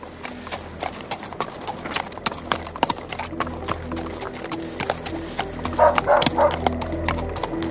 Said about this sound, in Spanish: debían de ser viajes muy pintorescos, Lo recreamos ahora con esos efectos de, los caballos, de los, de los carros, eh, llevando a los turistas de un lugar a otro